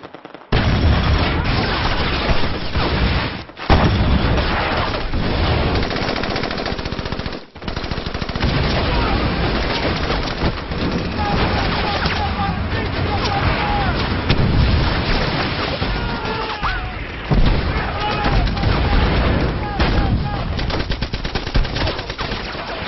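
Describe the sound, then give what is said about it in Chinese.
Dense battle gunfire from Japanese troops rattles on without pause, rapid machine-gun bursts layered over heavy booming artillery blasts, loud and chaotic throughout, with brief lulls before the barrage resumes. “可是，一推进坏了，就不知道从哪儿啊冒出来那么些日本人，噼里啪啦打呀！”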